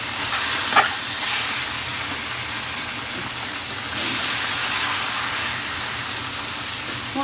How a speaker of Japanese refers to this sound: 今何を焼いてるかというと鶏のもも肉です今日のメニューは鶏のもも肉の塩焼きですちょっとじゅーじゅー言い過ぎですかね